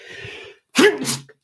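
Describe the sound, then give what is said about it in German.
A single loud sneeze: a breathy intake of air, a brief pause, then a sharp voiced burst that trails off quickly, with no talking. “Gesundheit.”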